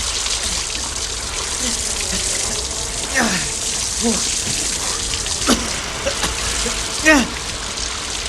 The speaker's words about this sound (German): Obwohl der Druck aus dem Schlauch nicht besonders groß war, gelang es den beiden, den Brand nach einigen Minuten einzudämmen. Die Flammen wurden kleiner und kleiner.